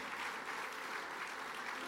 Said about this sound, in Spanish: Den un aplauso fuerte de alabanza a nuestro Dios.